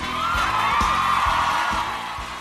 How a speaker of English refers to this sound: Every week, you savor the applause longer and longer. I do.